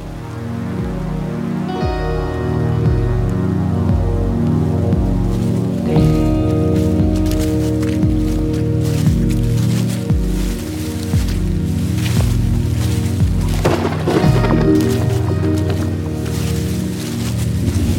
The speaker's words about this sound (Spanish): Antes de que termine la tormenta.